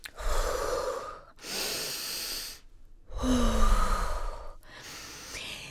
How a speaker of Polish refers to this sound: Chłopcze, aby dobrze zagrać na trąbce, najpierw musisz nauczyć się odpowiednio oddychać. Powtarzaj za mną. Wdech, wydech. Wdech, wydech.